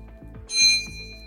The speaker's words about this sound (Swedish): Min är inte ens röd! Och det plingar här till höger och vänster. Du har tryckt in dig däremot, men du var inte snabbast.